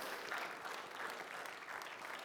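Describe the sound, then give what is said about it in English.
An audience claps together in praise of Jesus in a steady, dense wash of applause, many hands at once, sustained and fairly loud throughout with no voices standing out. “My God, give Jesus a hand clap of praise today, somebody.”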